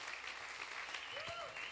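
An audience claps steadily, a dense, even wash of many hands with no single beats standing out, and a brief whistle-like tone rising and falling through the middle of the applause, applauding a person for all their hard work.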